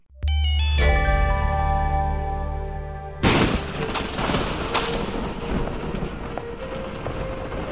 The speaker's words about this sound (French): Le ciel est noir, le tonnerre gronde.